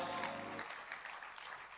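An audience applauds steadily to welcome a guest on stage, a dense wash of hand claps that stays loud across the whole moment, with a low sustained hum underneath for the first part.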